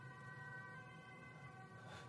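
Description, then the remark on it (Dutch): An ambulance siren wails steadily over low traffic rumble in a city, its tone holding strong and continuous as it passes by. No one speaks. “Komt de ambulance voorbij.”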